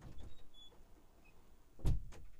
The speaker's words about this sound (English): I gotta go turn off the dryer. It's fucking squeaking.